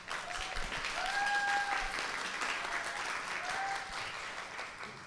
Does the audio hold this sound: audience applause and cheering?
yes